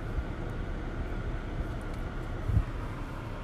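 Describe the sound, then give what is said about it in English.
An air conditioner runs with a steady, low, rumbling whoosh that holds an even level throughout, plus a brief faint bump partway through. No one speaks. “I'm so sorry if you guys can hear the air, but I'm pretty sure that I'm a lot louder than the air conditioning.”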